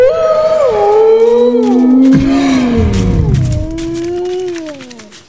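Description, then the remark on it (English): A pack of wolves, led by a huge black wolf, howls to the sky together in a loud, overlapping chorus: long sustained calls that rise and fall in pitch, holding steady before tapering off near the end, with no talking. “And then the wolf howls to the sky and the whole pack starts to run ahead, leaving you behind quickly.”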